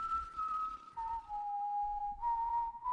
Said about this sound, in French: Quand l'usine a dû fermer ses portes et remercier ses travailleurs, je sifflais pour quelques pièces.